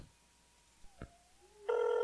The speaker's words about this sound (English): a phone call. Yes, we do, and here it comes.